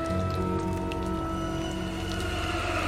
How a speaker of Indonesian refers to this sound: Iya, jawab ibu itu masih dengan hujan gerimis yang mengguyur jalan.